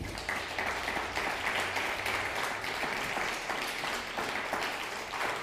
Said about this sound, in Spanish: Un fuerte aplauso a Bolivia.